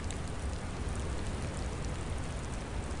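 Steady, heavy cold rain pours down in a constant dense hiss, with a low rumbling undertone and no breaks, enveloping, with no voices, on a dark stormy night at sea.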